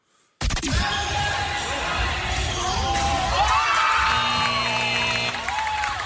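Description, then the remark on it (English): A crowd at a youth basketball game suddenly erupts into loud, sustained cheering and shouting as a game-winning three-point shot goes in with seconds left on the clock, with children's high-pitched yells and whoops ringing out for several seconds. “That is my son hitting the game winner from three point land.”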